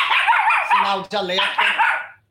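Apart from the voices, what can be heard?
dog barking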